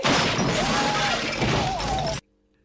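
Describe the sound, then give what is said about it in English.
In a film scene with John Candy, a bear smashes through a cabin door: a loud, sustained crashing and splintering racket lasting about two seconds, with a rough, growl-like tone woven through it, before cutting off abruptly into silence. “And then the bear breaks down the door.”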